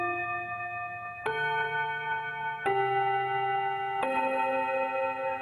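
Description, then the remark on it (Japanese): The familiar 'kin-kon-kan-kon' school bell chime rings out in clear, sustained bell tones, a new note starting roughly every second and a half with long ringing harmonics, heard on its own without talking. “この学校のチャイムに今異変が起きてるんですねはいこの今鳴っている金婚コ婚というこの定番のチャイムが今鳴らない学校が増えています”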